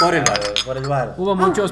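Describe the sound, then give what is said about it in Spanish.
A couple of quick, bright clinks of glasses touching in a toast, sounding under steady conversation as people keep talking. “Salud, señor. Salud.”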